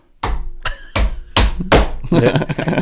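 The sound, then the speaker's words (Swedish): A dog named Sami bangs on a door to be let in: about five loud, hard knocks in uneven rhythm, trailing into a rougher burst of scrabbling and rattling at the end. “vakten då han, han, står ju och skallar och bankar på dörren om inte han får komma in.”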